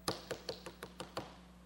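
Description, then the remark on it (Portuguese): A rapid series of seven evenly spaced knocks as Peter keeps knocking at a closed door or large gate, fairly quiet, with no talking. “E continua batendo.”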